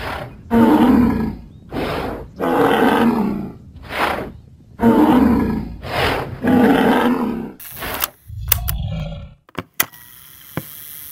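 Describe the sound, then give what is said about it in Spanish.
Glyptodonts fighting, striking each other with their tails and splintering their shells: a series of loud, deep roaring bellows in rhythmic bursts, then a few sharp cracking strikes and a low thud near the end, without any talking. “Los gliptodontes están peleando. Se pegan con sus colas. Se escucha cómo se astillan los caparazones.”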